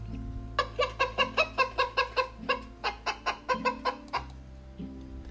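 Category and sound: bird, hen clucking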